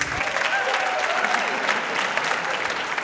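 An audience claps steadily throughout, a dense wash of many hands applauding at close range, fairly loud and sustained with no pause, with a few faint voices mixed into the crowd.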